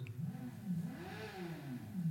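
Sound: car engine revving outside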